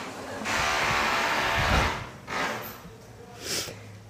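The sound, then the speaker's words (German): Drilling: a loud, harsh whirring burst lasting about a second and a half, followed by two shorter, sharper bursts of the same grinding noise. “Also und immer, wenn ich irgendwo einen Podcast aufnehmen gehe, übrigens wird dann gebohrt.”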